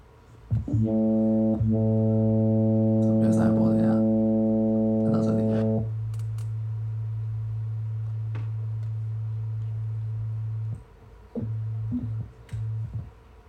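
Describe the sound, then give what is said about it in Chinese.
A steady, low tone from a single operator of the FM8 synthesizer plugin sustains for several seconds, richly buzzing with overtones at first, then settling into a pure, smooth sine-like hum before briefly cutting out and returning in short bursts. “好，一开始声音是一个上一波。”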